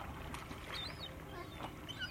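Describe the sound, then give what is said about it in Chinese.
Seagulls in Seagull Town call in a few short, high, arching cries over a steady wash of water and low ambient rumble; the whole scene is fairly quiet, with no one speaking. “海鸥镇真的有很多海鸥啊！”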